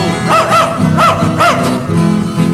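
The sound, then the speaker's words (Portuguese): A dog barks several times in quick, uneven bursts, fairly loud, over a steady background of noise or music with no voices. “Sai cachorro.”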